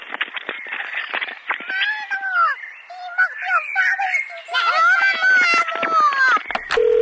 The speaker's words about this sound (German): Wissen Sie eigentlich, dass hier auch in, im Mansfelder Land die Vögel auch Dialekt pfeifen. Wenn Sie mal richtig hinhören, ich halte mal das Telefon ran,